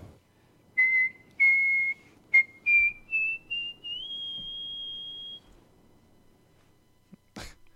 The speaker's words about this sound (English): There is a handful of people around the world who can whistle, love to whistle, and have turned a routine type of sound into art.